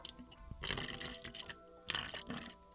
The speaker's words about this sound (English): Bring a refill here so people people could hear. Yeah, this live on the air. This fuck I mean, I'm gonna pour real slow. Shit sounds heavy.